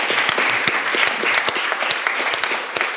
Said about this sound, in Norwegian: Jeg syns du fortjener en applaus for uh, det du sier.